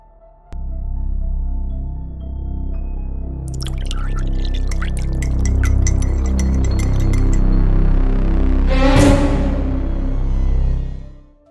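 A drink is poured into a glass, a steady liquid gurgle with bright clinks of glass and a rising fill tone near the end, with no talking.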